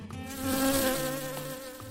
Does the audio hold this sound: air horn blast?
no